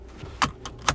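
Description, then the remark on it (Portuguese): A driver buckles a car seatbelt: three sharp metallic clicks and rattles, fairly loud, within a second, over a faint low car-interior hum with no one speaking. “Isso aqui é o som do cinto.”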